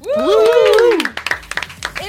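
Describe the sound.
A voice calls out with a long, swooping tone, then an audience breaks into applause, a burst of quick, scattered claps that carries on to the end.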